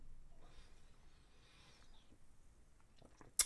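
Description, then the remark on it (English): Someone takes a quiet sip of Kingsville Canadian beer, India Pale Ale number 127, a soft slurping breathy sound over a low hum, ending with a short sharp knock like a bottle or glass being set down. “it's because I'm taking a sip from this week's beer sponsor, which is Kingsville Canadian beer, and I'm trying out their India Pale Ale number 127.”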